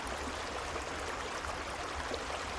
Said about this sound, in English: And let yourself drift off to the gentle sound of the creek.